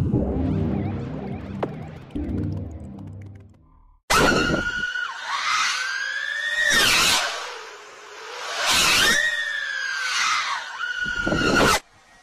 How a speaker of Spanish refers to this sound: El sonido que usted acaba de escuchar, que a mí me parece espectacular, es un drone acelerando de 0 a 200 kilómetros por hora en tan solo un segundo. Me vuela la cabeza ver ese video.